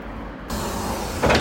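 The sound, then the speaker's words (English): A low bus engine idles, then a steady pneumatic hiss starts as the doors work, with a louder burst of air near the end, as a passenger boards a bus to Box, a small village just outside Bath. No one speaks. “I'm going to be able to get the bus straight there from pretty much just outside my house.”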